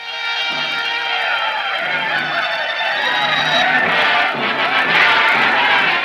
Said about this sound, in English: They call for a protest march on Shidehara's residence, and the crowd breaks into an angry chant.